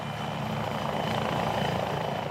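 rescue helicopter flying

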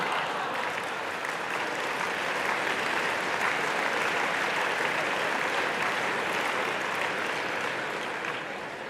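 audience clapping

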